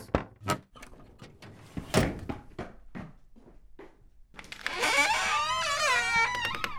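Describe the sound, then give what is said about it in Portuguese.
A series of sharp, irregular, loud thuds as police knock or bang on a door, followed by a sustained wavering tonal sound that carries through to the end. “A polícia. Abra esta porta.”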